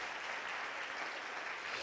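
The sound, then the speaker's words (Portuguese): An audience applauds the Lord during a church service, a dense, steady wash of many hands clapping at once, sustained at an even level for a couple of seconds with no voices standing out. “Aplauda o Senhor.”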